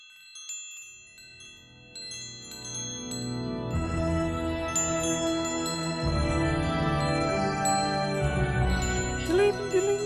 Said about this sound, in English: My God, My God, the wind chimes.